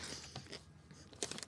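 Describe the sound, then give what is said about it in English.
A crisp crunch as a pickle is bitten, followed by a few wet chewing crackles and a second sharp crunch near the end, with no one talking. “And it's the sound of the pickle. It's not the sound of your mouth.”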